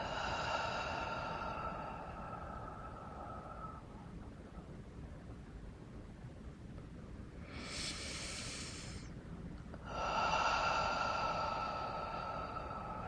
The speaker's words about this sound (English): So, breathing in and consciousness of Reiki on the breath, breathing in and breathing it out again.